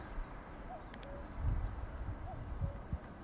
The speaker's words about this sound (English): Puffs of pollen explode from the pine trees, and I can definitely hear a cuckoo.